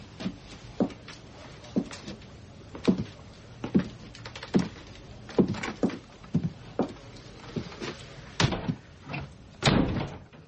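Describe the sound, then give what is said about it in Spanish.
A woman opening the door of her bedroom to a man, heard as a run of sharp wooden clunks and knocks in an uneven rhythm, fairly loud, with no voices. “Una mujer abre la puerta de su habitación a Jack.”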